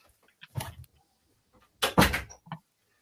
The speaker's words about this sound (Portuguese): Peraí que meu filho abriu a porta aqui do meu quarto. Um momento, deixa eu fechar.